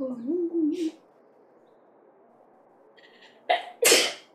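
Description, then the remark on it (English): A single loud sneeze near the end: a quick sharp intake followed by an explosive, breathy burst, after a brief wavering vocal sound and a few seconds of near-quiet. “Bless you”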